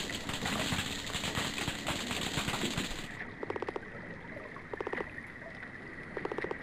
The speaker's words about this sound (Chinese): 而虾类会通过摩擦身体部位，产生出类似于刺耳鞭炮的声音。